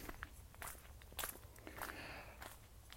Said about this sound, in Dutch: Ik ben hier door het bos aan het wandelen, mijn eh, eh, vaste wandelplekje.